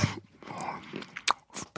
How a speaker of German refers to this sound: Hört man eigentlich, wenn ich auf die Nüsse beiße?